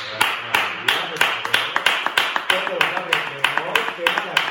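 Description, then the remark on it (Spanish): A steady run of about fifteen sharp hand claps at an even, brisk pace, with voices talking and murmuring faintly underneath throughout. “perfecto, pues un aplauso.”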